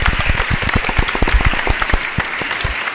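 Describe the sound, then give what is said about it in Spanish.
A crowd at a ceremony applauds president Miguel Ángel Revilla before his speech, many hands clapping in a dense, continuous patter with sharp individual claps standing out, loud throughout the whole stretch. “Un aplauso, por favor.”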